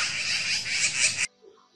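A magpie cries out in distress with one loud, harsh, rasping screech lasting just over a second, then cuts off abruptly into faint background noise.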